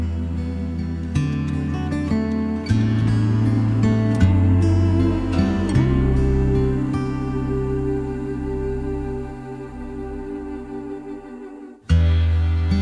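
Slow, gentle music plays with no talking: sustained low tones that shift in long, held chords, settling almost to silence briefly before the music resumes near the end.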